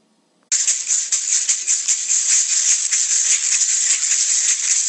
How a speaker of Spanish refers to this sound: El idiófono del conjunto está hecho de guadua y tiene forma de cilindro hueco y alargado. Sus medidas aproximadas son de 30 a 40 centímetros de largo y de 6 a 8 centímetros de diámetro.